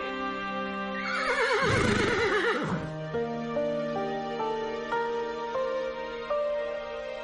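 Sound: horses neighing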